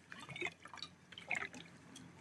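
Liquid dripping and trickling close by, a quick series of small splashy plinks and drops over a couple of seconds, fairly quiet with no talking.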